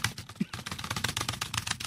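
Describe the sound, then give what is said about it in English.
Rapid, forceful typing on a computer keyboard, with keys clattering in a dense, uneven stream for two seconds and no voices. “I don't think we can afford another keyboard if you break that one.”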